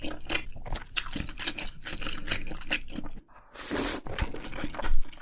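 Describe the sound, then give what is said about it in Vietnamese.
Wet chewing of sticky noodles with stretchy cheese, the noodles sticking to the teeth: steady squelchy smacks and slurps, a brief pause, then a louder burst of mouth noises. No talking. “thì phần mì và phần phô mai sẽ dính vào nhau khi bạn nhai mì thì mì lại dính vào răng bạn”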